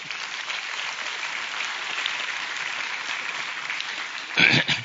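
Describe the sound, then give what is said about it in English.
Steady audience applause thanking two helpers for their work in a sermon illustration, a dense wash of many hands clapping at an even level for several seconds, with a brief louder burst near the end. “We'll give you applause for your good work.”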